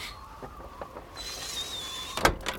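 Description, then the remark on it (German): A window being closed: a thin, high squeal as it slides for about a second, ending in a sharp, fairly loud clack as it shuts, followed by a softer knock. “Mach schnell das Fenster zu, Kopernikus.”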